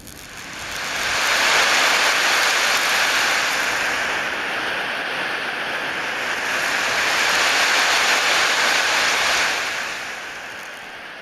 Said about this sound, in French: Euh, ça, ce sont des sons d'aurore boréale, ou du moins de projection d'aurore boréale, et c'est un atelier qui a été fait